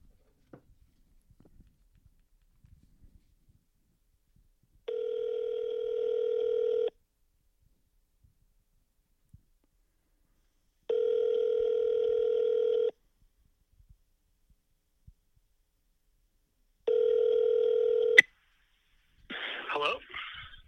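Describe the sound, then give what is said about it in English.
An outgoing phone call rings through a speakerphone: three long, steady ringback tones spaced evenly apart, then a short crackly burst as the line picks up. “So let's see if I can get him on the phone. Speaker.”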